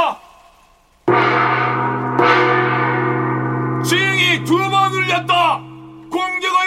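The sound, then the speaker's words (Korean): A loud gong crashes and rings out with a long, sustained metallic hum, a second hit following about a second later, while a voice calls out over the lingering tone; the gong signals troops to halt their advance. “징소리가 한 번 울렸다!”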